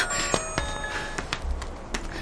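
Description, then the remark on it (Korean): A phone rings with a bright, bell-like ringtone: steady high tones layered over quick, repeated chiming strikes, moderately loud and heard on its own without any talking. “너 이 전화만 받고.”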